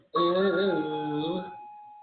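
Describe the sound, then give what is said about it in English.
A single sustained electronic chime from a newly installed front door alarm system in a house sounds for just over a second, steady and fairly loud with a faint warble, then fades into quiet. “I hear that door in the background front door. They just got a new alarm system.”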